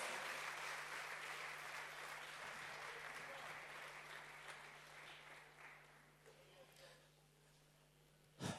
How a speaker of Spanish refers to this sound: Aleluya. Fuerte ese aplauso de alabanza al Señor. Bendito Dios.